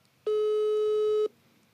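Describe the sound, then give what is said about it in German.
A single ringback tone from a phone line during an outgoing call: one steady, loud, buzzy electronic tone lasting about a second, then quiet line hiss. No one speaks. “Ersten Klingeln bin ich dran.”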